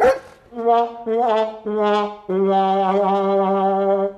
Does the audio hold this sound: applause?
no